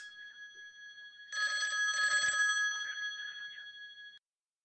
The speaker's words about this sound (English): Oh, hold on a second. I, I, think uh, I think I hear the phone ringing. Two seconds.